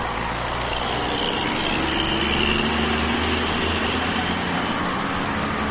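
A motorcycle engine runs steadily at idle throughout, a man sitting on the motorcycle on the sidewalk across the street, a constant hum with faint street traffic noise behind it and no voices.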